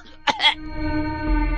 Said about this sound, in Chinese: 下意识的看了看亮子的尸体，呜，一口差点吐出来，咳嗽着倒退了好几步。